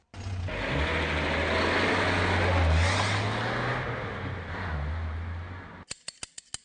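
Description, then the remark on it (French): A car engine runs steadily for about six seconds, heard from inside the car, a loud rumble with a low drone that swells slightly, followed by a few quick sharp clicks as it stops. “Bruit de moteur.”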